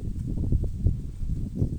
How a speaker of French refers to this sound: Et là, tu vois, tu entends peut-être le souffle du vent qui vient désagréablement dans tes oreilles. Bah, j'accepte cette imperfection-là.